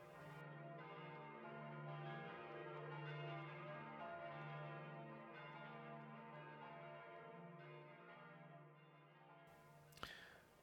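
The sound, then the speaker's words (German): Church bells ring in a steady, continuous resonant peal, their layered tones echoing off the old walls of a church for about ten seconds, with no voices, ending in a brief clunk. “Ich liebe diese Akustik in dieser Kirche und auch in anderen Kirchen, der Klang der Glocken, der an den alten Mauern widerhallt.”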